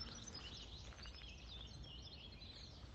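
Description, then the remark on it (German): Faint chirping from many small birds in the park behind the Landschloss in Gmunden on the Traunsee, in light drizzle, with overlapping high tweets and song phrases over a low outdoor rumble and no one talking. “Ja, sind jetzt im Park hinter dem Landschloss und lauschen den ganz vielen wunderbaren Vögelchen hier einfach zu.”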